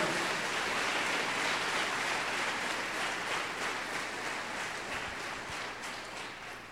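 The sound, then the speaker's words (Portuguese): A church audience applauds strongly for the Lord, a dense, steady wash of many hands clapping at once that holds loud throughout and tapers slightly toward the end, with no voices over it. “Se essa é uma verdade para a sua vida, se expresse, e dê um aplauso bem forte ao Senhor.”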